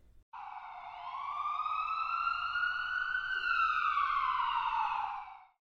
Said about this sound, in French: C'était un melting pot culturel, le son des sirènes de police ici a changé